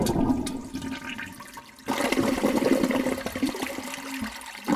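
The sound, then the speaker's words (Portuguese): A toilet flushes with a loud rushing gurgle of water, surging suddenly about two seconds in and swirling steadily until the end, alone with no voices. “agora a gente vai para o nosso último quadro, que é o Descarga Mental.”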